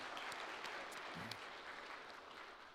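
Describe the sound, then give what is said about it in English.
An audience claps steadily for a few seconds to applaud community ministry volunteers for their work, a dense wash of many hands blending into continuous applause that holds at an even level, with a brief murmur of voices underneath. “give uh, our volunteers, Amanda and her team, a round of applause for the great work”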